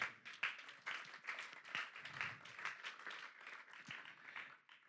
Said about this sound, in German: Dafür kann man mal einen Applaus geben.